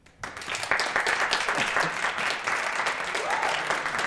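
Applause from a small experimental studio audience of just over 20 people starts abruptly and holds steady for several seconds, a dense patter of clapping hands that is fairly loud, with no talking over it.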